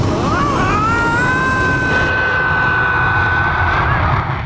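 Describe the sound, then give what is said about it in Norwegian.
An airplane taxiing out on the runway in a film scene with the character Elling aboard, its jet engines giving a loud, steady roar, with a high whine that rises in pitch and then holds for several seconds. “Elling innser ikke at han har flyskrekk før flyet begynner å taxe ut på rullebanen.”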